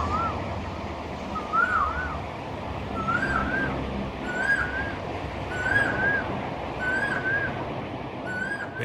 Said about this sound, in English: And there's a specific bird in Bangkok. Um, I hope I've got a recording of it because if I have, I want to put it in.